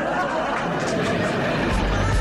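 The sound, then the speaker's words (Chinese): A canned laughter track, a sound effect triggered live by the host of a radio entertainment programme: a dense, steady wash of crowd laughter and chatter that holds at an even level for about two seconds, with no single voice standing out. “这个东西在做音乐的里面叫罐头音效，就像你听到那些什么破产女孩啊、生活大爆炸里面会有笑声，都是罐头音效。”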